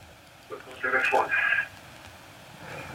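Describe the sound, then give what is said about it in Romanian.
A thin, tinny snippet of radio broadcast voice echoes back through a caller's phone line, lasting about a second amid low line hiss, with a faint murmur returning near the end. “Nu, nu mai ascultați și la televizor sau la laptop sau la ce sunteți.”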